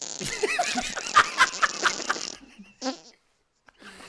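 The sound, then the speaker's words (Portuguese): A buzzy, crackling electric fart sound effect rasps loudly for about two seconds, then a short sputtering burst follows, and after a brief silence another faint sputter begins. “Que isso? Peido elétrico?”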